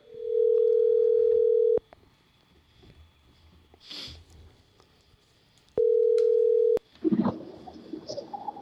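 telephone ringing

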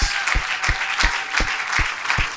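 audience clapping hands

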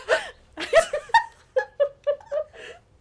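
hiccup

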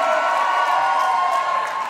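audience applauding and cheering

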